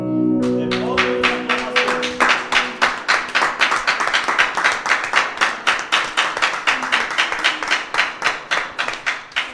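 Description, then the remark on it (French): A crowd breaks into loud, sustained applause, the clapping settling into a fast, steady rhythm for several seconds, with a brief sung or held tone fading out at the start. “je crois qu'il mérite le plus grand applaudissement, n'est-ce pas”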